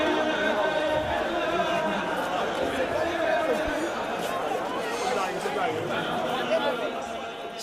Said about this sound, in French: Ce vendredi-là, en effet, pour la grande prière de 14h, une foule impressionnante se presse pour accéder à la mosquée. La plupart restent sur le parvis et débordent à l'extérieur dans les rues adjacentes.